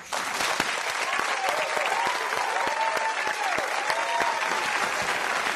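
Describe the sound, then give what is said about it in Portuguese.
A crowd applauds steadily in recognition of about 200 jobs created, many hands clapping in a dense, even patter that holds at a constant loud level throughout without fading. “Isso merece aplausos.”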